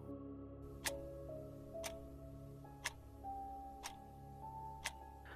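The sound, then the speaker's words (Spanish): A clock ticks steadily, five crisp ticks about one second apart, over a low, constant background hum, at night past midnight, otherwise quiet. No one speaks. “Y durante un par de segundos no se escucha nada más que el sonido del reloj”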